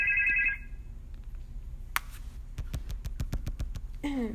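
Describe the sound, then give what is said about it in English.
A phone ringtone chirps briefly in bright, melodic tones, followed by a quick run of sharp clicks like finger snaps, with more ringing tones at the end. “Uh, my trap line booming.”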